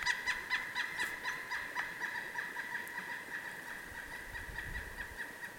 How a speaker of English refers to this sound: There is our pileated woodpecker again, calling out. That's his territorial sound. And they're very territorial.